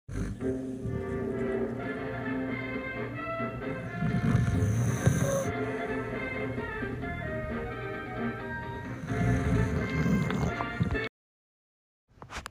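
Deep, rasping snores from someone watching a western swell up twice over a steady bed of orchestral music and dialogue-free sound from the western film playing, fairly loud throughout, then stopping abruptly.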